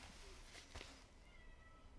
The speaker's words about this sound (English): Oh, oh my cat's meowing up a storm.